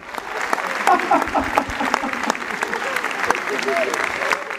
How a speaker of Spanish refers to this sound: Lo despedimos con este fuerte aplauso.